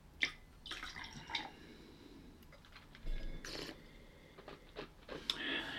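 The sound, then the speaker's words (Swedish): Quiet splashes and trickles as leftover water is swirled and tipped out of a glass, a few short bursts with small clinks, then drips; no talking. “Tyvärr så hade vi lite vatten i glaset, eh, skällde ur.”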